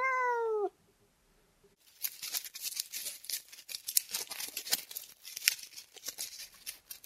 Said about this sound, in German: als sich herausstellte, dass es nur die Katze von nebenan war.